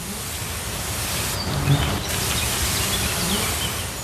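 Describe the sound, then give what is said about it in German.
A dense, steady buzzing of a honey bee swarm clustered tightly together in a bush, a continuous low drone with faint rustling, unbroken throughout, with no one speaking. “Vor Ort hat es im Strauch eine Ansammlung von Bienen, die sich wie ein Tannenzapfen dicht aneinander gepresst haben.”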